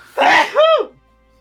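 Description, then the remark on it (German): One loud sneeze: a sharp, breathy burst followed by a short voiced "choo" that trails off, then quiet. “Nochmal gesund.”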